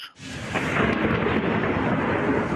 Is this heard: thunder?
yes